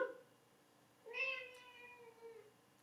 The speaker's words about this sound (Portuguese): Esse miado é da Marie, tá, gente? Vocês ouviram? Miau, é da minha gatinha que tá aqui, ó. Do meu lado.